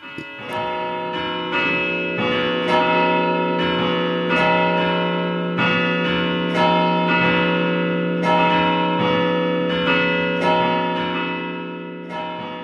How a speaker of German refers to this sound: Klar, klar, können wir jetzt gerne hier ein bisschen, ein bisschen Glocken okay. läuten lassen.